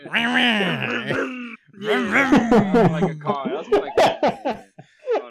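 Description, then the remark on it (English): A man's voice imitates the revving chainsaw of Denji, loud: a rough, buzzing growl that rises and falls in pitch, a brief pause, then a longer run ending in choppy, sputtering bursts. “But then in the background, all you see is one of the dead bodies rising up, and you hear a like a chainsaw.”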